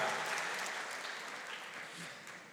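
A crowd applauds loudly, a dense wash of many hands clapping that holds steady for a couple of seconds, then gradually thins and softens toward the end.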